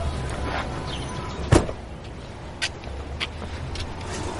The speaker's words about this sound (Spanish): Llega Antonio en su coche, se baja y se acerca hasta ellos.